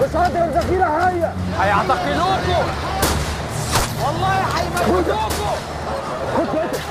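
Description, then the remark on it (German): Several sharp gunshots crack out at irregular intervals over a noisy, agitated crowd of demonstrators, with many voices shouting and talking throughout, as police clear a protest tent camp; the shots come from the demonstrators' side. “Und dann fällt ein Schuss und das ist dann eben ganz klar der Schuss kommt von Seiten der Demonstranten und tötet einer der Sicherheitskräfte, einen Polizisten.”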